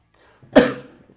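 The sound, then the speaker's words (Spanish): A single sharp cough bursts out and trails off quickly, with no talking around it. “si la tos, me cago en la leche.”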